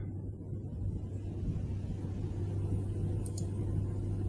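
A steady low engine rumble drones continuously throughout, like a car driving along, with constant road and wind noise and no voices.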